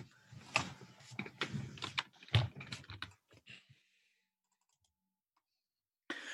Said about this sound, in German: Ich muss jetzt einmal kurz äh, würfeln. Geht gleich los.